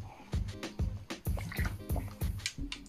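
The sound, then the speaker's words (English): Sipping and gulping of water, a quick series of about seven wet swallows in a steady rhythm, fairly loud with no talking. “Sip of water.”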